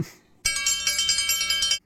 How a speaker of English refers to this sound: ring the news bell.